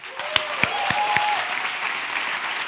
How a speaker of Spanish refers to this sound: me aplaudo a mí misma, que estoy ya un poco fuerte,